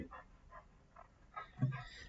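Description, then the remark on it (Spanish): A female dog, coming into the room, vocalizes faintly in the background, giving a series of short, soft whining calls spaced out over a couple of seconds, with a brief low thump partway through. “Entonces, mientras digo esto, no sé si escucha de fondo. Entra mi perra.”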